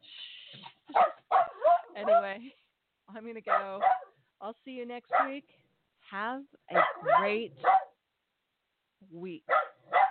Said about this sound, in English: sorry, sorry about the dog.